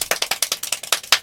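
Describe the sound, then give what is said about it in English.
Very fast speed clapping done with a swimming-fish hand technique, about a dozen sharp, crisp claps in quick, steady succession, fairly loud with no voices, giving a rattling, almost mechanical rhythm. “That's speed clapping, by the way, but that could be a lot of different things.”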